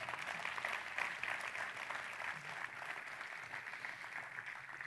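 A church audience applauds for the Lord steadily, a dense, even wash of many hands clapping that stays loud for the full stretch without clear breaks or speech.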